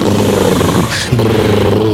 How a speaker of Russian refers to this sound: Потом жуткие звуки работы желудка и кишечника.